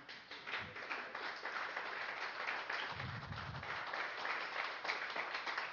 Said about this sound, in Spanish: Si eso no merece un aplauso, mi hermano.